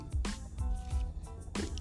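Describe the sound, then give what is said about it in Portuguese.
Someone takes a small sip of water, with three short wet gulping sounds in a steady rhythm, fairly quiet and with no talking. “deixa eu tomar um golinho d'água aqui.”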